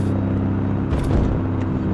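Steady low engine drone and road rumble from inside a moving car, constant and fairly loud throughout, with a brief swell of tire and wind noise near the middle; no one speaks.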